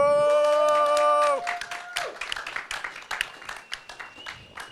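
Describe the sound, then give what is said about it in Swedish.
A brief musical sting of sustained bright tones cuts off, and a small audience breaks into lively, steady clapping for guests being invited up, which carries on to the end. “Kan vi ge en applåd”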